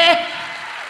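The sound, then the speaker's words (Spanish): After the last syllable of a spoken word, a crowd breaks into strong applause for the Lord, a dense, even wash of clapping that continues at a moderate level. “Si ese es usted, déle un aplauso fuerte”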